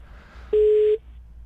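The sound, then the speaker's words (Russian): A single loud telephone ringback beep, a steady mid-pitched tone lasting about half a second, stands alone over a faint low hum with no talking. “Так, выводим гудки.”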